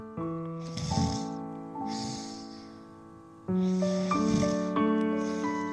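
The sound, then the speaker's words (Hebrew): A voice imitates a tiger's soft, raspy snoring: a series of short breathy snorts like small breaths, repeating in a steady rhythm, set over sustained, gentle musical tones, moderately quiet. “הנמר התחיל לנחור. אלה היו חרחורים קטנים, כמו נשימות קטנות.”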